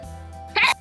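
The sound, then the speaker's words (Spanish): A single sharp sneeze bursts out loud for a fraction of a second, breaking a quiet, steady background hum. No one speaks. “¡Salud!”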